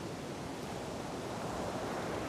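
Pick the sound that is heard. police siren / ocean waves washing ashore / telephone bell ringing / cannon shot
ocean waves washing ashore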